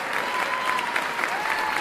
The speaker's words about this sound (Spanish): Ovación, por favor.